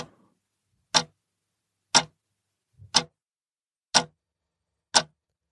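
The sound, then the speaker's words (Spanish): A clock ticks five times at a steady one-per-second pace, each tick a sharp, loud click standing alone against silence, as the clock approaches midnight. “y será ya la próxima semana cuando ese reloj se aproxime a la medianoche con una nueva entrega de Vigilantes.”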